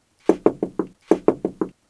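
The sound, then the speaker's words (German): Two sets of four firm knocks on the door of a small doghouse, clear, each series evenly spaced with a short pause between the groups. “An der Tür des kleinen Hundehäuschens klopfte es.”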